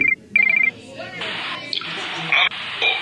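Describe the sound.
A telephone rings in two short trilling bursts at the start, loud and close, then gives way to a rushing, hissy background with voices talking.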